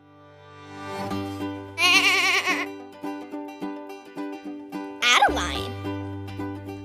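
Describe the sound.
Five people take turns baaing like sheep for a guessing game, a run of fairly loud imitation bleats, a couple of them trembling with a shaky warble.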